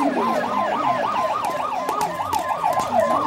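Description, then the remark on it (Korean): A police car siren wails in a fast, steady up-and-down warble, fairly loud throughout, with faint street noise underneath and no one speaking. “또 경찰차가 다니고?”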